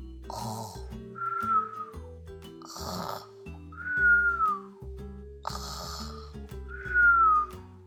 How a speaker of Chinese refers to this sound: 不到两分钟，温妮就打起了呼噜。